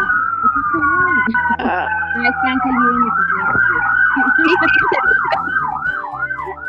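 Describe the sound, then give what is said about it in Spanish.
Police sirens wail outside a house as about eight patrol cars pass behind it, a steady tone shifting into a rapid yelp pattern, loud, with a voice talking underneath. “Hay muchas patrullas afuera de mi casa.”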